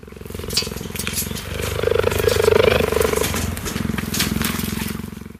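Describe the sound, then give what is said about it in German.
A Savannah cat, a semi-wild cat, purrs loudly and steadily for several seconds, a deep rumbling pulse with a rough, motor-like texture that swells in the middle and continues without pause. “Einmal angeschafft, sind viele Halter aber auch schnell mit den Halbwildkatzen überfordert, denn allein das Schnurren verrät, dass man es hier mit einem anderen Kaliber zu tun hat.”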